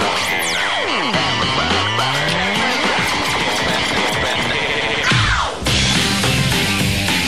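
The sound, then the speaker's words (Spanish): Loud, dense electronic pop music from a music video plays continuously with the volume turned up, full of swooping synth glides that dive and rise, with a brief dip near the end before the track surges back. No one talks over it. “Le voy a subir para escuchar y recordar viejas glorias, güey.”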